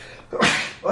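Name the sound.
sneeze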